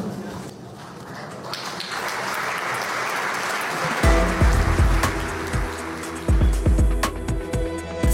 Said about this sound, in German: Publikum stand auf, klatschte und Julia Nawalnaja betrat die Bühne.